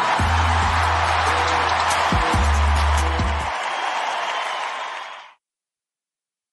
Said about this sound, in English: That warm applause welcomes us into another edition of Pollock and Thurston here on Wednesday, December the 6th.